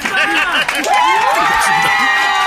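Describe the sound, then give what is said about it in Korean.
A large baseball stadium crowd roars and cheers continuously for a pitcher, many overlapping voices rising and falling in a loud, dense wash of shouting with no pauses. “들리지 않아요? 이 관중들의 성원이!”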